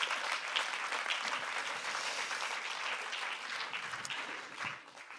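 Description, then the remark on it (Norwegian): A church audience applauds for Jesus, a steady, dense wash of many hands clapping at an even loudness that holds for several seconds before easing slightly at the end. “Hvis du tror det, så kan du gi en applaus til Jesus.”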